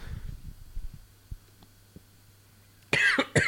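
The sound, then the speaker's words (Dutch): After a few low, muffled throat sounds and a quiet stretch, a loud burst of coughing erupts near the end, two or three harsh coughs in quick succession, as a person coughs on a burp stuck in the throat. “Ja, maar ik liet een boertje en dat bleef steken, ah, in de keel.”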